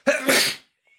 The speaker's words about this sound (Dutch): Gezondheid.